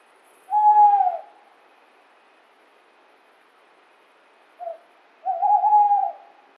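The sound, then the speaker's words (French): A tawny owl hoots: one long, steady hoot, a pause of several seconds, then a brief note leading into a drawn-out, wavering hoot. Clear, with no voices. “Super, donc vous nous avez fourni un petit extrait du cri de la chouette ulotte.”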